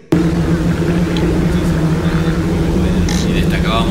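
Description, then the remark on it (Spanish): A diesel engine fitted with a Hester glow plug bursts into life and settles into a loud, steady low rumble that runs without pause, with some voice-like sounds faintly mixed in above the drone. “¿Y arranca o no arranca? Siempre arranca con bujía Hester para motores diésel.”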